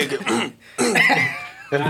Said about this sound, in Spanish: Cuando toses, tosele lejos al micro. Ah, o en lugar de toser, dale un trago a lo que estés tomando y si ocupas agua, dime.